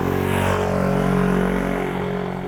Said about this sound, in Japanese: 今バイク通りますけね。